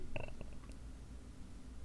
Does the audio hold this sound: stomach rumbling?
yes